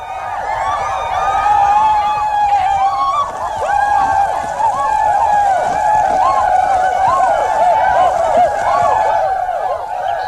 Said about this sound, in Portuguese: Imediatamente as mulheres largaram suas tarefas e, junto com os que estavam dentro da taba, vieram correndo, todos gritando, querendo me ver.